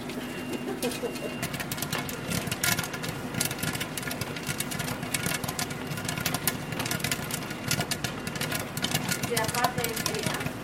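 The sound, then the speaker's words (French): Popcorn kernels with a pinch of salt popping, tumbling and getting coated in a pot: a dense, irregular stream of sharp crackles and pops over a steady low mechanical hum, continuing without a break. “on commence à entendre le bruit qu'on connaît hein, du, maïs qui éclate ou qui tourne et qui s'enrobe.”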